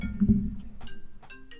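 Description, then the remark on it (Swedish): A phone ringtone chimes in a few short, bright melodic notes over a low background rumble, at moderate volume. “Det här var ju dåligt att det ringer här. Ja, det ringer.”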